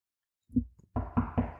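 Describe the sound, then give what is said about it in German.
Several hollow knocks on wood, a couple of softer taps followed by three firmer, evenly spaced raps, clear with no talking. “in einigen Kreisen der Meinung ist, wenn man in bestimmten Situationen eine bestimmte Sache tut, wie auf Holz zu klopfen, dass das Ritual mich davor bewahrt, dass ein bestimmter Gedanke oder eine Befürchtung, die ich habe, wahr wird.”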